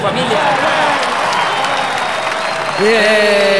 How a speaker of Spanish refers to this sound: Exacto, exacto, porque la gente ni siquiera está escuchando, no está poniendo atención y solo aplauden al tonito que nos dejó Salinas de Gortari, si mal no recuerdo.